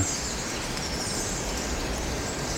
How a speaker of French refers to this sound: Ici, il y a un petit groupe qui fait une sorte de réunion dans un arbre. Ça piaille.